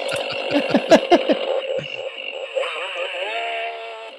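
A toy Stihl 500 i chainsaw's electronic sound effect: a run of choppy, sputtering bursts gives way to a steady, buzzing synthetic whine that wobbles in pitch, fairly loud, with no talking.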